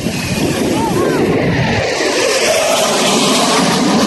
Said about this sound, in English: F twenty two. There's going to be an F thirty five. Here, crank it. It's up, It's a jet.